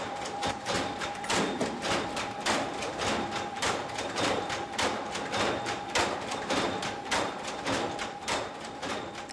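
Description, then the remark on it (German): A machine automatically draws in and folds a large moistened sheet of cardboard with a dense, rapid clatter of thumps and taps over a steady mechanical hum and a faint high whine, continuous and fairly loud throughout. “Diese zieht das Papier ein und faltet es automatisch.”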